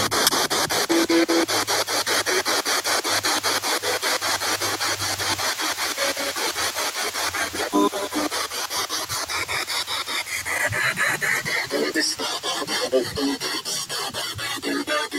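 Harsh static from a spirit box radio sweeping rapidly through stations, a steady choppy stutter of hiss and crackle that stays loud for the whole stretch, with no clear voices.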